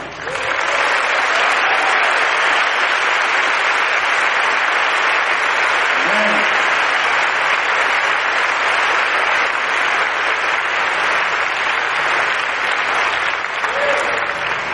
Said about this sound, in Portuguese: Então, a esse Jesus que ressuscitou, nós vamos realmente dar uma salva de palmas.